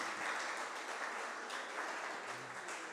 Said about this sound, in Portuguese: Aleluia. Vamos aplaudir Jesus, irmãos.